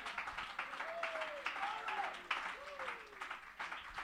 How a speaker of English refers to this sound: Somebody clap your hands and shout it to the Lord with a voice of triumph.